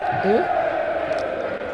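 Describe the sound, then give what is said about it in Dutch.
A crowd of fewer than a thousand people in a largely empty football stadium chants and sings together, a steady wash of many voices with a rising sung line carrying over the din, heard through an opened door. “Even kijken of ik de deur nog een beetje kan openen. Zie dat de mensen dan een beetje van eh, het geluid mee horen van het publiek.”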